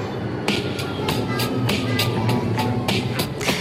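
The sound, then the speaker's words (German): A Zurich tram rolls along its rails near Limmatplatz with a steady low rumble, while wheels clack over track joints at a regular, fairly quick rhythm, moderately loud throughout. “Zum Schluss heute noch eine gute Meldung für Zürcher Trampilotinnen und Buschauffeure.”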